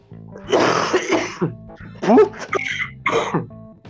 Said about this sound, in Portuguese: Ah, pera aí, cara, que eu vou dar uma tosse aqui muito de Covid.